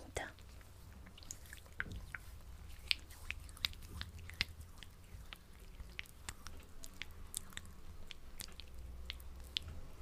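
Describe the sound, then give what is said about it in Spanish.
Soft, wet squishing of lotion cream being rubbed between hands before massaging feet and ankle, with irregular little clicks and smacks over a low steady hum and quiet breathy background. “entonces voy a comenzar con esta crema”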